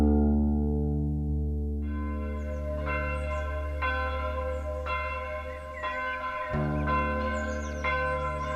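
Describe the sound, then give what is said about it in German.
Two church bells, of a German and a French Catholic church in a tiny village, ring together for a funeral in a steady, overlapping toll, their deep resonant strokes sounding every second or so with long sustained hum between, loud, with no voices. “Zu ihrem Begräbnis in der deutschen Kirche hört man beide Kirchenglocken, die der deutschen und die der französischen Kirche.”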